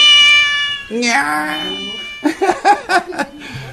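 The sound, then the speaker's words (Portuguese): A black cat meows loudly with a long, high, drawn-out cry, followed by a rising yowl and then several short, choppy bursts. “O gato preto, o gato da sorte, né?”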